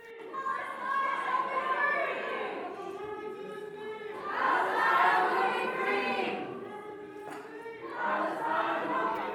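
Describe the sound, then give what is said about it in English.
A crowd of demonstrators chants and shouts together, including 'From the River to the Sea', while senators carry on proceedings inside Corwin Pavilion; loud and continuous, rising in repeated waves of massed voices with brief dips between them. “Meanwhile, inside Corwin Pavilion, in front of a remaining audience of a hundred or so viewers, the majority appearing to be pro Israel, the remaining senators attempted to carry on with proceedings as the demonstration went on.”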